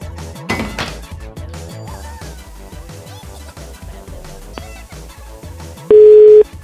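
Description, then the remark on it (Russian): A busy line tone on a telephone call: one loud, steady, mid-pitched beep sounds at the very end, after a stretch of dense clattering and musical background noise. “Сейчас я звоню.”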